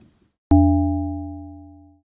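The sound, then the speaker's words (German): A steady electronic tone made of several stacked pure pitches, a sonification of the lithium spectrum, starts abruptly, holds for about a second and a half, and slowly fades out. Nobody speaks over it. “Okay, also jetzt kommt, jetzt kommt Lithium.”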